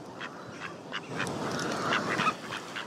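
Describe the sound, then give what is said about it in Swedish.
A group of ducks quacking steadily in short, overlapping calls, with a busy, continuous chatter and no voices. “På ljudfilen ankor.mp3 heter den som jag har lagt in här i ljudprogrammet.”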